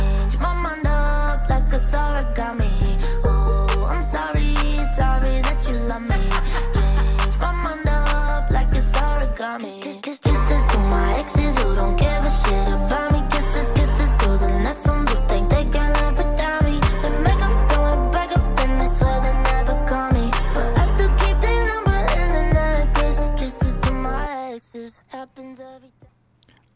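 A brand-new single from an album plays: a loud, dense pop or rock song with a steady thumping bass beat and layered instruments, briefly dropping out once before cutting off near the end into near silence.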